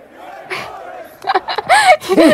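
A crowd of football fans at a match chants a slogan in loud, rhythmic bursts of shouting voices, rising in intensity toward the end, with a faint murmur of the crowd underneath at the start.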